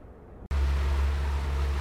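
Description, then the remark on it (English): The engine of a rented motorboat on the Caloosahatchee River drones loudly with a steady low rumble, mixed with rushing wind and water noise after a brief quieter start. “All right, that's the Caloosahatchee River. We're on it. We rented a boat for the day.”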